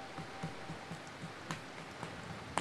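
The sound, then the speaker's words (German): Steady heavy rain patters outside in a dense, continuous hiss, with scattered sharper drops ticking through it. It stays fairly quiet and even throughout, with no voices. “Es prasselt draußen ganz heftig.”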